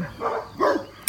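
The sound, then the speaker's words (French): A protection dog barks twice in quick succession, loud, each bark a harsh, full-throated burst, followed by a short sharp click. The dog is barking because it thinks it has seen wolves. “Donc ça c'est Pirate, euh, le chien de protection qui croit avoir vu des loups.”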